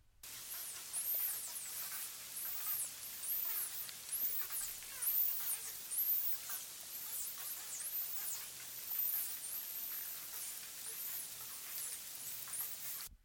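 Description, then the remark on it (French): A busy underwater chorus of small dolphin-like cetaceans: rapid high-pitched rising and falling whistles overlap with crackling clicks in a steady, dense cacophony, with no voices. “Et je vais mettre un petit peu de lombec aussi, parce que les lombecs, ils sont rigolos, ils font une sacrée quincaphonie sous l'eau.”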